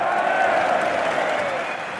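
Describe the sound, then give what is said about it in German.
A football crowd at a Union match applauds and cheers a successful sliding tackle, a dense, steady wash of clapping and voices, loud throughout and easing off slightly near the end. “Das Publikum gutiert derweil auch schon mal eine gelungene Grätsche.”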